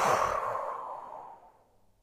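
A long, deep exhale during a guided breathing exercise for relaxation, after breathing in and holding the breath: a broad airy whoosh that starts strong and slowly tapers off over about two seconds, with no talking.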